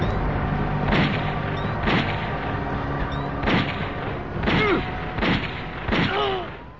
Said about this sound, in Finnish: Ammuskelti ja kaikkea.